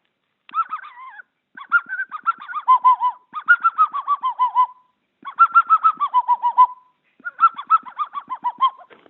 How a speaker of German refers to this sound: Und die, äh, den Fuchs kann man schon vor der Ranz mit der, mit der Fuchsflöte heranlocken. Und äh, das hört sich dann so an, ganz leise. Das Instrument habe ich nach uralten Beschreibungen nachgebaut.